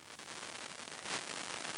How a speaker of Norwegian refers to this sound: Det var litt eh, skurrete lyd på deg, men eh, vi får høre om den er blitt bedre.